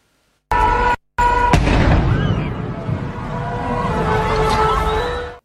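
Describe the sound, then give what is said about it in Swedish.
A large explosion in a burning building in the 19th arrondissement of Paris on a Saturday evening booms out suddenly after a brief hum, followed by several seconds of heavy rumbling and crackling as debris settles, loud. “Här är explosionen som skakade om Paris under lördagskvällen.”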